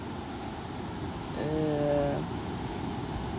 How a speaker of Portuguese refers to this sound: E esse barulho que vocês estão ouvindo é do mar. Eu tô assistindo o, o nascer do sol na Praia do Amor, em Pipa, na Praia de Pipa, no Rio Grande do Norte.